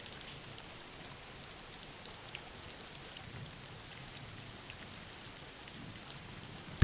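Steady rain falls without a break, a soft continuous hiss with scattered light patter of drops, faint and even throughout with no voices.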